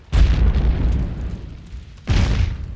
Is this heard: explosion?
yes